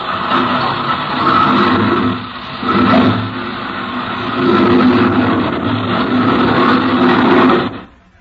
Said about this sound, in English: Captain Bellows climbed into the cockpit, and the lieutenant spun the propeller.